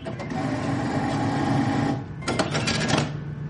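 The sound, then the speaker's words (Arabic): An ATM dispenses banknotes: a steady mechanical whirring and rapid clicking as it counts out the notes runs for about two seconds, pauses briefly, then resumes with a burst of crisp rustling clatter, loud. “صوت الفلوس وهي نازلة من الصرافة بعد ما نزل الراتب”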